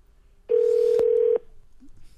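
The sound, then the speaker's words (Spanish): A single steady telephone keypad tone sounds as a phone number is dialed, under a second, mid-pitched and fairly loud, with a brief click partway through, then a faint low murmur. No one speaks. “Márcale, por favor.”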